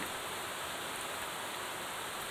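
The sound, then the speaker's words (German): Steady, dense patter of rain falling on many different materials, heard through an open window, a continuous wash of countless drops without distinct individual hits, fairly soft and even throughout with no voices. “Die Vielheit der auftreffenden Tropfen auf allen möglichen Materialien erzeugen eine unvorstellbare Varianz.”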